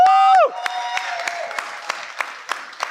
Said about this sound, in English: So if we could just take a couple seconds and just let's give our volunteers uh, applause. Woo!